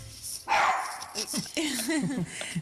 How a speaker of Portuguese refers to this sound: Temos um cão, sim. Não costuma ladrar, mas hoje lembrou-se.